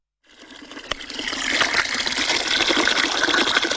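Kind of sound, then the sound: sound effect, water gushing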